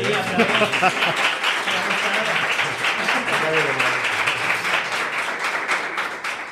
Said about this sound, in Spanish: Puedes aplaudir, puedes aplaudir.